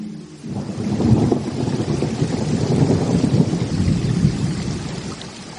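Steady, dense rain hisses without pause while deep rolling thunder rumbles underneath, swelling after the first half second and staying loud and continuous to the end. No voices.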